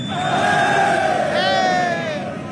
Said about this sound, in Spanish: Amigos, miren, esto fue lo que hizo Piqué eh, borracho y hablando el público, en público y toda esa gente que le gritaba, boo, miren, aquí está.